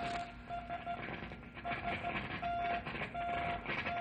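A steady high beeping tone keys on and off in short and long pulses, a Morse code SOS distress signal from not very far away that seems to be getting weaker, heard over a constant rumbling, staticky background noise.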